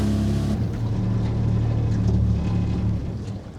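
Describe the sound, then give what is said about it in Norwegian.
A motorboat engine drones steadily on Langesjøen lake on Hardangervidda, Norway, while fishermen pull gillnets, a low humming throb with a slight shift in pitch partway through, tapering off a little at the end. No one speaks. “trekker garn i Langesjøen midt inne på Hardangervidda. Han er fjerde generasjon rakfiskprodusent, og bak roret styrer sønnen”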